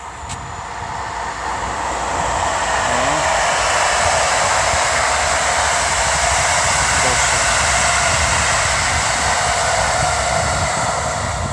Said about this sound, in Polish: O, jakiś pociąg szybciutko jedzie.